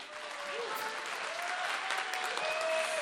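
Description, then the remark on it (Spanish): Sustained audience applause for the whole production team, a dense wash of steady clapping that holds at an even, fairly loud level for the full three seconds, with a few faint tonal whistles or cheers drifting above it. “Entonces, pues les voy a pedir un aplauso en este momento general para todo el equipo y después diré sus nombres.”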